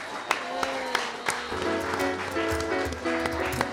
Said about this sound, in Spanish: Chicos, chicas, gracias. Vamos a llamar a otros cuatro amigos y le vamos a dar este aplauso. Venga.